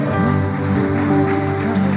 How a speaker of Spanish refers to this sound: Entonces vamos a levantar un fuerte aplauso de agradecimiento.